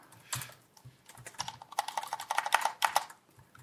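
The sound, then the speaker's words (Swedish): Rapid typing on a mechanical keyboard with smooth, linear neutral switches, a steady stream of soft clacks that speeds into a dense flurry of keystrokes with no voices. “Neutralbrytare, vad kan det vara? Ja, det, kan, det är svårt att veta. Ja. Det är ju den här.”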